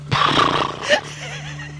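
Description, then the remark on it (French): A person vocally imitates a potioc, a small Basque pony the size of a dog, grazing on a green hillside: a loud, throaty whinnying burst of about a second that rises briefly near its end, then fades into a quiet, tonal hum. “À présent, vous contemplez un coteau verdoyant couvert de potiocs qui broutent et qui font”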